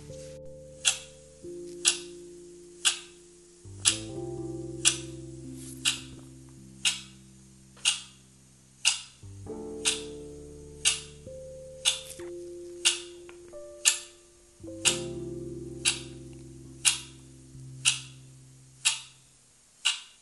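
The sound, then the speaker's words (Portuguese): A steady clock ticks at an even, unhurried pace, each crisp tick clear, over a soft, sustained backdrop of low droning tones that shift slowly. No one speaks. “Agora continue desta forma, oscilando de um lado para o outro, no ritmo do tic-tac do relógio.”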